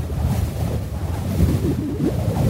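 Strong wind gusts pulling at roofs in the Arizona desert, in a continuous low, rumbling roar that swells and buffets, with no voices.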